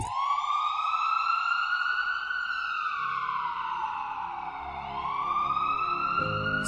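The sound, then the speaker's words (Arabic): An emergency vehicle siren wails loudly and steadily, its pitch gliding slowly up, down and back up again, with a faint low rumble beneath and no voices. “صوت الطوارئ يعيد نبضها.”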